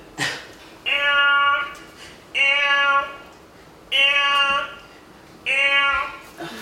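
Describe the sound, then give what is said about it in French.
A voice imitates a gazelle call: four evenly spaced, steady, nasal bleats, each lasting over half a second, fairly high-pitched and loud, with short quiet pauses between them. “Moi, je vais appeler la gazelle.”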